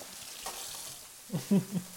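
Ingredients, including tomatoes with a bit of their oil, frying in an oiled pan, a steady sizzle with a few louder bursts of crackling and stirring scrapes near the end.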